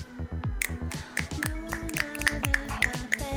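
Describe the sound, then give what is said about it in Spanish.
A scattered handful of finger snaps, about a dozen sharp, bright clicks at uneven intervals, over a low, steady tonal backdrop with no talking. “Son pocos chasquidos, pero de espíritu son 200, señor.”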